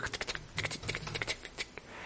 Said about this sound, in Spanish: Vale, pues espera que voy redactando el, el, contrato. Y, bueno, pues empieza a escribir eh, en una máquina de escribir